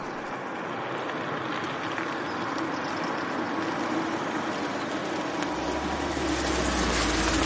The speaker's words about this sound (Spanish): Katia circula en un coche por una carretera cerca del mar.